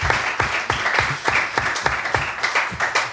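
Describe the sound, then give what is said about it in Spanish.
Steady applause from a small group, many hands clapping in a dense, continuous patter that stays fairly loud throughout, with no voices over it. “¿Se escuchan los aplausos?”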